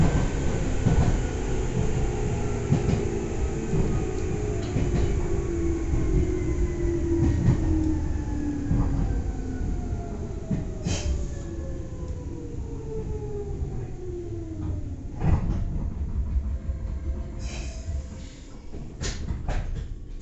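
An electric train of the Nagoya Railroad (Meitetsu) Toyota Line runs on rails between Sanage, Umetsubo and Akaike with a steady low rumble and a motor whine that glides downward in pitch as it slows, broken by sharp clicks from the track. No one speaks.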